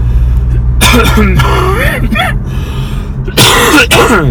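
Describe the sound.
A person coughs in two harsh bursts, with a short throaty, voiced sound between them and a steady low rumble underneath.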